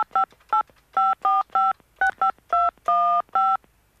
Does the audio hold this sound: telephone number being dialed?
yes